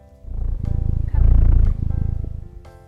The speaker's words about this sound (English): Cats will purr for a variety of reasons, dependent on their age. Mother cats will often purr to calm their kittens, and later on, purring will happen when a cat is relaxed or calm. However, they may also purr when they are stressed.